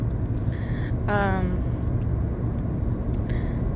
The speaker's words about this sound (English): Uh, so if you hear the cars in the background, I'm sorry, but it makes it more authentic, you know?